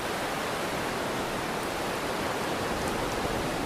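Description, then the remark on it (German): A steady hiss of surf from the Tromper Wieg rolling gently onto a white sand beach on an island, waves with white foam crests, in a moderate, fresh spring wind; a continuous broad rush of water with no distinct wave breaks standing out and no voices. “Die Wellen der Tromper Wieg rollen gemütlich mit ihren weißen Schaumkronen an das Ufer”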